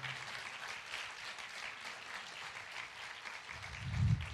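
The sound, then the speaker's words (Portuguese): An audience breaks into sustained applause for the Lord, many hands clapping in a dense, steady wash, with a low thump swelling near the end. “A salva de palmas ao Senhor.”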